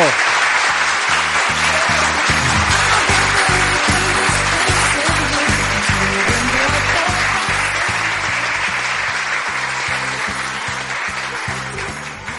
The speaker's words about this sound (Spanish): así que ahora le vamos a dar un aplauso por todos los comentarios que ha hecho. ¡Un aplauso!